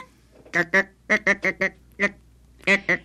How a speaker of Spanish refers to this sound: La gallina...